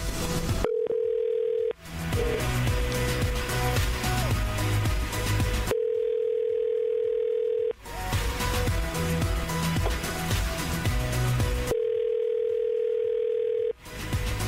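An outgoing phone call's ringback tone, on a call placed on air by radio station Mix 94.7, sounds three times, each steady two-second ring spaced several seconds apart, with loud upbeat music filling the gaps between rings.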